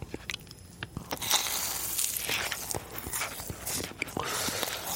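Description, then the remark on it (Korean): Crunchy chewing of food with vegetables: a steady run of sharp, crisp bites and crunches, loud, with irregular rhythm and no talking. “야, 씹는 게, 씹는 게 느낌이 다른데?”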